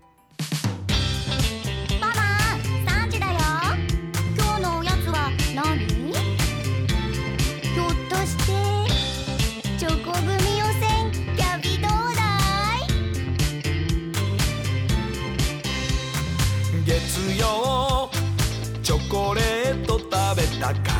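A bright, upbeat snack-themed pop song plays loudly throughout, with a lively sung vocal melody over a steady, driving beat and full instrumental backing.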